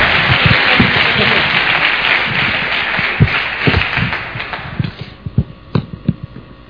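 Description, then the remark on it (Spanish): An audience breaks into dense, steady applause that gradually thins out, leaving a few scattered, sharper claps near the end. “un aplauso por favor, sí señor, sí señor, sí señor.”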